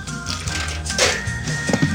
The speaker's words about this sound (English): Well, I am uh, grabbing the ice in my mixing glass. Right? And again, this is not going to be shaken. This is going to be stirred as a cocktail.